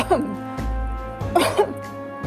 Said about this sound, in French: Il y en a cinq, répondit monsieur de Marquet, après avoir toussé deux ou trois fois